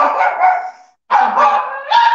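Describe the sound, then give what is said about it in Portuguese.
A dog barks loudly, giving a few drawn-out, high-pitched yelping barks separated by a brief pause, with no one talking. “cachorro aqui.”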